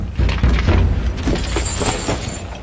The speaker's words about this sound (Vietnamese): Quân Thánh Dực dúi đầu Khánh Dư xuống sàn đá đánh cọp một tiếng thật to.